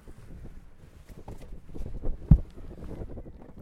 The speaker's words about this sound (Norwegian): Nå blåste det litt vind i dag, men det klarer vi. Det er ikke så farlig.